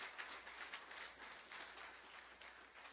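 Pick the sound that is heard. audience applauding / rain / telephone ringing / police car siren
audience applauding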